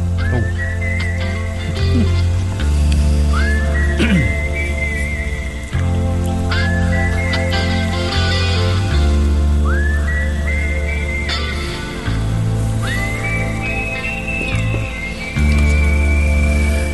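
A whistled melody rises and glides in repeated phrases over a sustained rock band backing of steady bass and chords, playing out the closing bars of a slow ballad with no voices.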